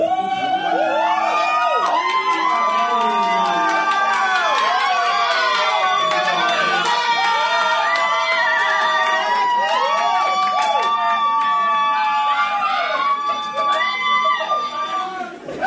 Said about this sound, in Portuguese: Queria agradecer ao rapaz da edição que colocou aplausos e gritos aí.